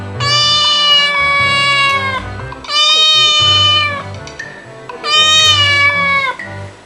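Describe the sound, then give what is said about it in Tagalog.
A cat gives three long, loud, drawn-out meows as if looking for food, each one plaintive and insistent, separated by short pauses with a low rumble of background noise underneath. “Di nagtagal, Gumiyaw ang pusa na tila naghahanap ng pagkain”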